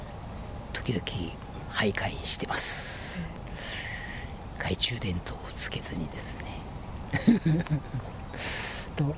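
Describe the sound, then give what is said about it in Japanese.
A man talks calmly while various insects chirp and trill in the background, thin high-pitched buzzing rising in bursts, like crickets at night in a shrine forest. “森 の別な顔も聞こえて見えてきますしいろんな虫の声鳥の声も聞こえます”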